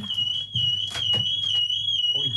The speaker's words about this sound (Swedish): Ja, det går någon form av larm här i alla fall. Jag tycker vi spelar musik istället för att göra något annat det här oväsendet.